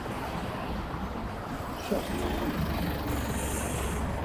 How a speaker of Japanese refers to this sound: はい、もうちょっと車も増えてきたので